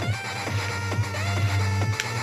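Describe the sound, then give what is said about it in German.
Electronic music for a rhythm game with a steady pulsing beat: punchy kicks land about every half second over a sustained bass drone and bright synth layers, loud and continuous with no voices. “Ihr müsst euch vorstellen, das, was ihr im Beat hört, das kommt hier auch.”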